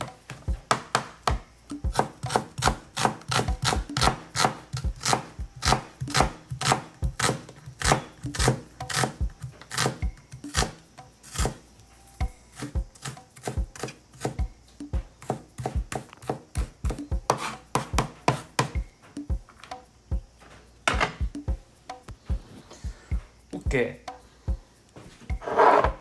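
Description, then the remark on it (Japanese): A knife chops an onion rapidly on a cutting board, cutting a single serving's worth, in sharp taps in fast bursts, slowing to scattered cuts and some scraping later, with no voices. “この玉ねぎはねちの父親が畑で作ってくれてる玉ねぎになりますこれいつ1人分だけの量で切って使います”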